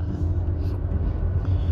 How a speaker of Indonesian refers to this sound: ini macet dan mulai sodok-sodokan di jalan tol Tomang saudara-saudara